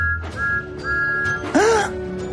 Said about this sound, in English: Then Percy heard a familiar whistle.